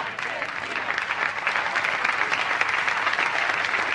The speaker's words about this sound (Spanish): Démosle la bienvenida a Javier, para quien pido un fuerte aplauso.